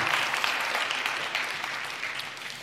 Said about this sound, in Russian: Дайте еще раз аплодисменты. Аллилуйя.